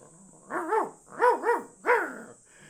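A dog barks in three quick bursts, some with doubled woofs, about five barks in all, with a faint steady high hiss in the background and no one talking.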